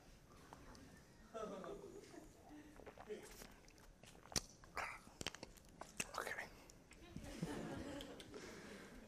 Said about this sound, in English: I'm going to take another sip and hope that this lasts.